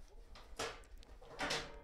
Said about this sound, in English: All right, I'm going to open the garage door.